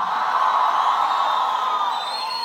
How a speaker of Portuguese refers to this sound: Só quem crê dá o um grito aí mais alto que você pode.